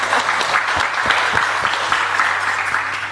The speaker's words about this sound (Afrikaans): Kom ons gee hulle lekker hande klap.